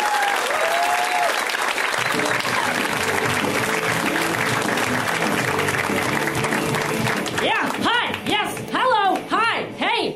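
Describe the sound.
A crowd applauds steadily and loudly for a comic coming on stage, a dense wash of clapping for several seconds, and then a man's voice begins speaking over the fading applause.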